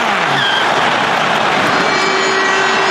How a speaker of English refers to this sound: There goes the siren. Ball comes back, and into touch it goes. All Blacks win.